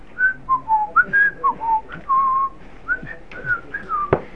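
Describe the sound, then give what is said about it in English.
Someone whistles a short, wandering tune, with a series of clear pitched notes that slide up and down in an easy, casual rhythm, ending with a brief sharp click. “They're blaring out, conveying something to you, and all you hear muffled sounds as you go happening along your way, whistling this kind of tune to yourself.”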